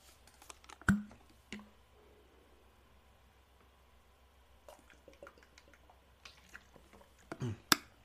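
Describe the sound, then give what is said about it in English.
Quiet sips of water: a few short wet slurps and swallowing clicks scattered across the silence, with a louder cluster of sips near the end. No one speaks. “I will say, no alcohol, just some water, some H2O. Trying to stay hydrated.”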